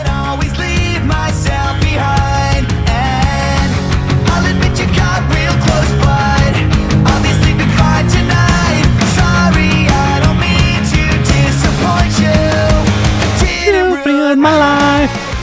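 A loud, dense rock song plays steadily with pounding drums and a thick full-band sound, briefly thinning into a sparser break near the end before the band kicks back in. No one speaks.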